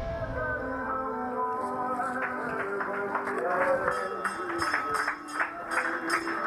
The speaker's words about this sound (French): D'ailleurs, alors que nous entrons dans le bureau de la recruteuse, une cloche retentit.